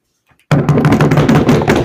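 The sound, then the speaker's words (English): After a brief pause, dice clatter and rattle across a tabletop, rolled to give a novel a recommendation rating, a dense, loud run of rapid knocking taps that continues without letup. “And at the end, we want to uh, make a recommendation and roll the dice.”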